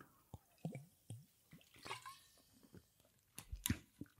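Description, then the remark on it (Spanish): Someone pausing from talking takes several wet sips of water, with gulps and small mouth clicks spaced irregularly, followed by a couple of sharper swallowing sounds and a soft exhale, no talking. “Voy a hacer una pausa de estas dramáticas de agua porque no sabéis lo que es esto de hablar, hablar, hablar cómo te queda la voz.”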